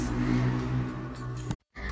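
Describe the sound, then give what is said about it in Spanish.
Motorcycles passing in a small town rumble and rev loudly for a couple of seconds, a steady droning roar that cuts out abruptly near the end before picking up again faintly. “Pero bueno, ya se fueron las motos, bye.”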